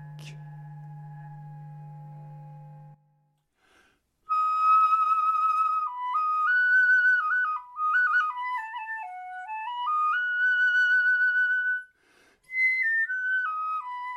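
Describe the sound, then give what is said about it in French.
An example of a sound with a harmonic spectrum: a steady low humming tone rich in overtones holds for about three seconds, then after a short pause a bright, whistle-like harmonic tone glides and steps through a wandering melody, loud and clear, with no talking. “Nous nous déplaçons progressivement des sons inharmoniques, comme les cloches, aux sons multiphoniques, puis vers des spectres plus harmoniques.”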